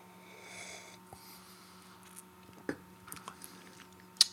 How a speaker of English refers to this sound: Yeah. It's interesting on the nose. I gave it a little sniff there before that sip.